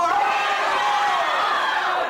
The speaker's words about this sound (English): Let's kind of on the count of three yell out exactly where you're from here this morning.